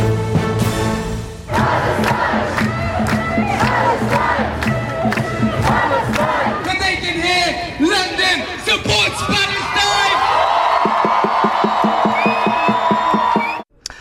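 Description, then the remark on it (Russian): A large street protest crowd in London, out with Palestinian flags in support of Palestine, chants loudly in unison, voices rising and falling in a steady rhythmic pattern, with sharp accented beats punctuating the dense roar of many people. “В Лондоне действительно очень много людей а, вышли на улицы с флагами Палестины в поддержку Палестины”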